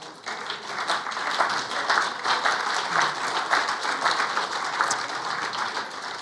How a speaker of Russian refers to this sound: Я знаю, почему вы хлопаете. У кого-то кошелек наполнился, кто-то нашел свой кошелек.